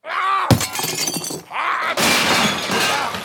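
A computer screen being smashed in a studio: a sharp crash, then a second heavy blow bursting into a loud, sustained shatter of breaking glass and plastic, with no voices.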